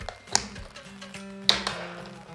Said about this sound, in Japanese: バタンバタンうるさいねタッパーの